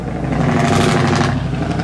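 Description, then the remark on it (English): A loud truck engine roars steadily for a couple of seconds, a thick low rumble with a broad rushing hiss on top, swelling slightly midway as it passes. No one speaks. “That was loud. Get a truck.”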